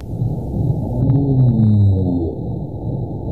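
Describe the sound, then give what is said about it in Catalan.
A humpback whale sings in long, sweeping moans that glide upward and fall, layered over a deep underwater rumble, with no voices present; the species sings in breeding season and to communicate with others of its kind. “Escoltem la balena japeruda.”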